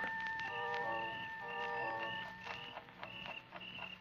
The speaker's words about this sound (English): The sound of the alarm clock we brought with us mingled with that of the crickets outside.